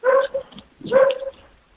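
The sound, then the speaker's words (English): A dog barks twice in the background of a caller's phone line, a short pair of yelping barks about a second apart, sounding thin and narrow, with no talking. “Uh, oh, I got a uh, dog on the phone.”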